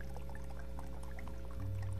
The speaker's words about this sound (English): And he took a cup after the meal and poured wine in, saying, This cup is the new covenant.